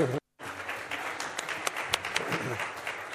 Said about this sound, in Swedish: Visst har vi ett fantastiskt lovsångsteam? Ja? ja? Ska vi ge dem en riktigt varm applåd?